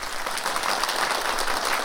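An audience on a music show claps for three performers, a dense, even wash of many hands with no pauses, sustained at a fairly loud level throughout. No one speaks.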